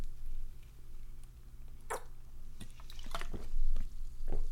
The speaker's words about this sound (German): Puh, ich äh, muss mal kurz einen Schluck trinken und ähm, mache das gleich mal on air, weil, weil, weil ich es kann.